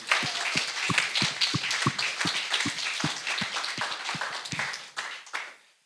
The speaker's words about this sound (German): Komm, lass Gott mal einen Applaus geben, oder? Er hat's verdient.